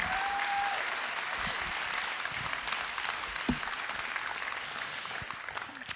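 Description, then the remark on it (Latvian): Steady applause from an audience welcoming the speaker's wife, a dense wash of clapping that holds at an even level throughout, with a few sharper individual claps standing out near the middle. “Man brīnišķīgā sieva, un es sagaidu, ka jūs arī sagaidīsiet viņu ar lieliem aplausiem un atbalstu.”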